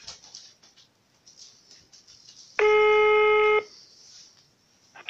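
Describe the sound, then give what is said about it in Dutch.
Faint crackling line hiss, then a single loud, steady electronic tone lasting about a second before the quiet line returns, as a phone call to a Dutch helpline for domestic violence and child abuse is put through. “Wij verbinden u door. Een ogenblik geduld, alstublieft.”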